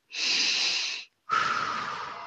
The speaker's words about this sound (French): Posons notre attention sur notre respiration.